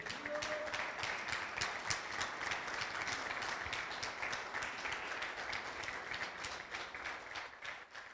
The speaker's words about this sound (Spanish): Démosle un fuerte aplauso al Señor, por favor.